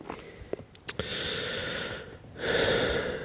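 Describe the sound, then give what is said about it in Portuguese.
Heavy breathing right up against the microphone: a few quick sniffy puffs, then two long, rushing breaths separated by a brief pause. No one speaks. “Entre estar aí a ouvir a minha respiração quase.”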